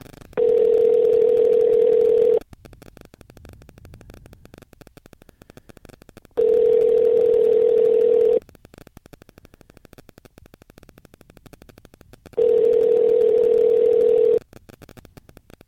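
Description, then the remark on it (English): A telephone line tone on an outgoing call, made while calling someone back after hanging up: three steady, mid-pitched hums, each lasting about two seconds, separated by roughly four-second pauses of quiet line noise, with no one speaking. “I'm going to hang up, but I'm going to call you right back.”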